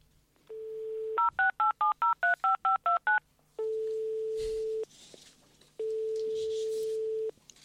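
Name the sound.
telephone number being dialed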